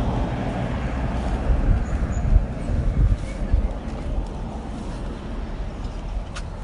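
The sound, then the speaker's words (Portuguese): Steady low roar of traffic on an island with cars rushing past close by, swelling and fading in broad washes, a constant rumbling bed with no clear gaps between passes. “Isso tudo é carro passando aqui pertinho.”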